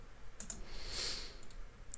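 Faint mouse clicks on a shared link come in quick pairs, a double click early and another a second later, then a single click at the end, with a soft hiss swelling in between and no talking.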